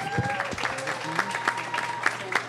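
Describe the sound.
Audience applause for a local artist and entrepreneur introduced on stage, a dense patter of many hands clapping at a steady moderate level, with faint voices and a few tonal sounds mixed in underneath.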